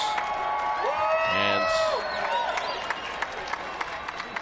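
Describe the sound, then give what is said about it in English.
A crowd of Golden State Warriors and Steph Curry fans at a basketball game in New York cheers and applauds steadily, with several high, rising whoops and shouts breaking out above the continuous roar early on before settling into sustained clapping and cheering. “You can hear a lot of Warrior fans, a lot of Steph Curry fans still left here in the house.”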